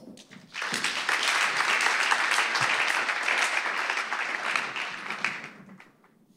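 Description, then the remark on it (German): A church audience gives a big round of applause to welcome a doctor as a guest. The applause swells up quickly, a dense steady wash of many hands clapping that holds strong for several seconds before tapering off. “Bitte begrüßt ihn mit einem großen Applaus.”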